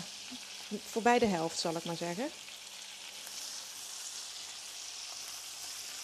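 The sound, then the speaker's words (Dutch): Chicken sizzles and fries steadily in a hot pan over fairly high heat, a constant hissing crackle that runs the whole time, with a man speaking briefly over it near the start. “Kip blijft toch al, gauw een beetje aanbakken. En ik heb het vuur ook redelijk hoog staan hoor.”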